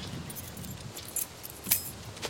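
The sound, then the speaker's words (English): Keys jangle in a few quick metallic bursts, bright, tinkling clinks rising above a quiet background, with the loudest shake near the end. “Here's the keys.”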